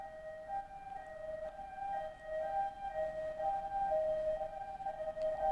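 An ambulance siren wails steadily, its tones alternating between two pitches as it passes, loud and continuous with a low rumble of traffic underneath and no talking.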